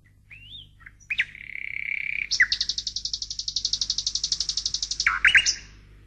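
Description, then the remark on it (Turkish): A golden nightingale sings mournfully as it is carried out of a palace, opening with a few sliding whistled notes before breaking into a long, rapid, ringing trill that ends in sharp chirps, with no voices. “Sarayın dışına ayak bastığı anda altın bülbül acı acı ötmeye başlamaz mı?”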